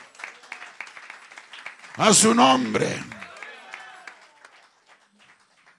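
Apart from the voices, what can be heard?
audience applauding loudly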